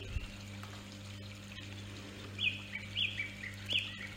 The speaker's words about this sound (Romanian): Iar apa râului ce curge pe lângă potecă se aude liniștitor.